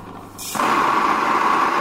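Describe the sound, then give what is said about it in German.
A grain mill in a shop is switched on to grind grains into a container: after a faint low hum and a brief hiss, a loud, steady motor whir kicks in abruptly and keeps running with a strong mid-pitched drone. No voices. “Jetzt wird die Mühle angemacht und dann kommen die Körner rein.”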